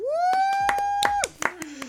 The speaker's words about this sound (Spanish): Fuerte aplauso.